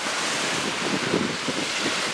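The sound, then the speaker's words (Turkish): Stormy Aegean Sea with waves crashing and strong wind roaring across the microphone, a dense continuous wash of noise with loud surges of surf, no voices. “Mültecilerin Yunanistan'a geçmeye çalıştığı Ege Denizi fırtınalıydı.”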